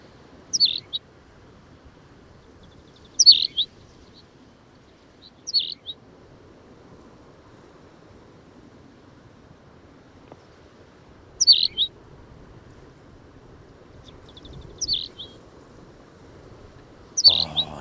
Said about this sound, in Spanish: este pajarillo que tiene un canto muy discreto